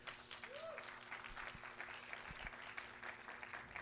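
An audience applauds for Josué, steadily, a dense wash of many hands clapping at an even level for several seconds, with a few low thumps and a brief voice tone mixed into the crowd noise.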